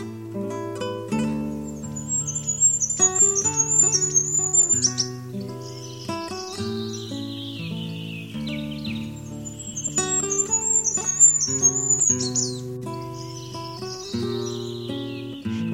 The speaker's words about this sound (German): Das war das Wintergoldhähnchen.